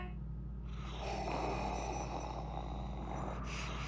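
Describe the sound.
Heavy, rasping mechanical breathing through a helmet swells in over a steady low hum and holds loud, with a slow hiss of air and no talking.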